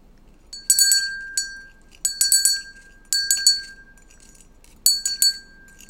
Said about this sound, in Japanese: 実はこのリースね、あの、ベルがついてるんですよ。で、ベルの音だけでも、あの、届けることができたらなと思って、えー、ちょっとね、届けたいと思います。